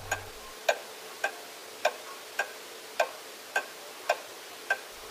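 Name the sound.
clock ticking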